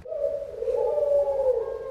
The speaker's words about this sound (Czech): Nás tady hudebně doprovází hrdličky klec pro ty hrdličky je součástí záklenku, dá se říct, hlavního iluzivního vchodu.